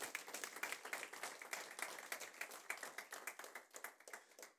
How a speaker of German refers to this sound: Jetzt kannst du klatschen, weil das ist die Wahrheit, wirklich. Das ist wirklich die Wahrheit.